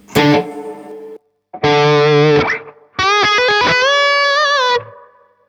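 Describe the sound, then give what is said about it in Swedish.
Three loud bursts of distorted electric guitar played through an effects unit with reverb, each phrase ringing briefly before cutting to silence. No one speaks. “Och sen har vi, då har vi, och reverbet har vi här.”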